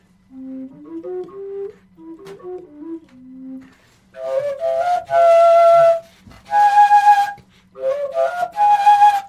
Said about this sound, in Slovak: Väčšinou na fujarke prefukuješ tie vyššie tóny, hej?